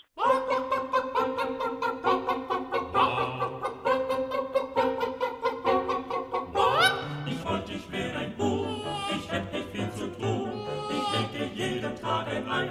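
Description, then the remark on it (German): A flock of chickens (Gallus gallus) at the Alpenzoo Innsbruck clucks loudly, many overlapping calls blending into a constant busy chatter, with a sharper rising squawk breaking through about halfway. “Gallus gallus cunatus, wenn Sie wissen, um welche Tierart es sich handelt, die seit kurzem als Neuzugang den Alpenzoo Innsbruck bereichert”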